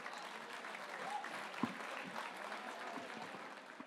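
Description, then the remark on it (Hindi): Steady applause from an audience welcoming a poet to recite ghazals fills the whole stretch, a dense, even wash of clapping at moderate loudness with a few sharper claps standing out. “जोरदार इस्तकबाल कीजिए”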